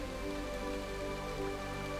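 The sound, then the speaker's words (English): Steady rain falls and patters on a surface, a continuous soft hiss of droplets at an even, moderate level, with no voices, beneath a faint sustained tonal hum. “as you open yourself to accept and receive this beautiful cooling rain.”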